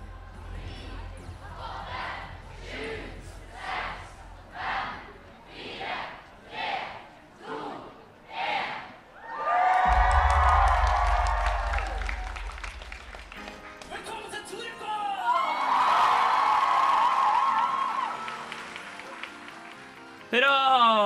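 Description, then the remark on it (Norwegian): A large crowd at the opening show of the Torukon convention chants or claps in a steady rhythm of about nine pulses, then erupts into loud, sustained cheering and applause with a deep rumble underneath. “Det klippet du hørte der, var rett og slett fra eh, åpningsshowet på Torukon.”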